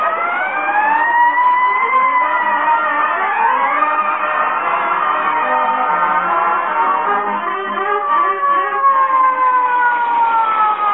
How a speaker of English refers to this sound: Boy, when I rolled past the Elks Club with a siren going 70 and me going 30, those guys flew out of here.